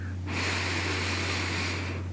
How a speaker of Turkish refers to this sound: Ve öncelikle bir nefes alarak başlamak istiyorum. Benimle beraber burundan derin bir nefes.